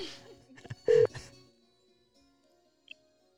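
A quick run of telephone dialing tones as a call is placed to a caller, including one clear steady beep among short clicks and bursts, then near silence with a faint blip near the end.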